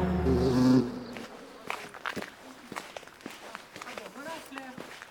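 A honeybee buzzes loudly and close for about a second, then the buzz cuts off, leaving scattered footsteps and soft rustling clicks.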